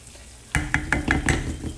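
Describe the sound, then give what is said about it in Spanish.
Rice mixed with fideo noodles frying in a pot as the heat is turned up before water is added, with a steady sizzling hiss under a quick, regular run of scraping stirs, about five or six strokes in a row, after a brief quiet start. “Aquí se sube la, la temperatura porque ya voy a colocar el agua.”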